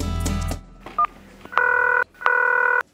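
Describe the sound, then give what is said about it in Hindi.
Telephone dialing tones as a man phones a college friend: a brief beep followed by two longer, steady electronic tones separated by a short pause, after a quick rustling burst at the start. No voices. “तुरंत उसने college time crush और गुड फ्रेंड वाणी को फोन लगाया”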